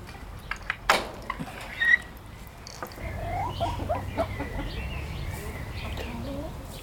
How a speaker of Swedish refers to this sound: Tuppen är ju, eh, det vill säga för blomsterhöns, blomstertupp. Hönorna är blandras faktiskt från vår, vår tidigare hönsgård.